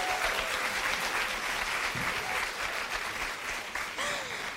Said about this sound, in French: j'aimerais vous remercier vous et vous pouvez vous applaudir d'être venus.